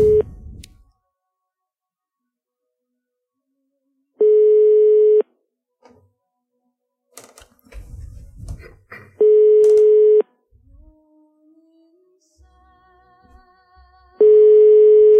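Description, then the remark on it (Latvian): A telephone line tone sounds in steady one-second beeps spaced several seconds apart as a radio programme tries to phone a bishop, loud and clear, with faint line clicks and handset noise in the gaps. No one speaks. “Tad pamēģināsim arī viņu sazvanīt.”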